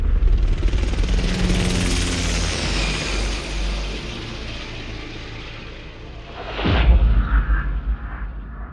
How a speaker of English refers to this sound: Get ready for some turbulence. Earthquake. Looks like a minor one. Big and small, they're a regular enough occurrence.